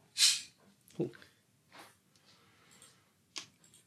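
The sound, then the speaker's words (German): A short, sharp fizzing hiss as a carbonated drink is opened, followed by a soft thump and a few faint hissy rustles and clicks, with no talking. “Ja, man, entschuldige die Geräusche im Hintergrund. Ich mache mir gerade was zu trinken auf.”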